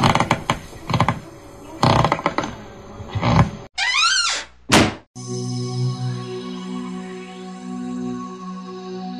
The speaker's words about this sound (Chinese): 壮壮藏进了衣柜，还关上了门。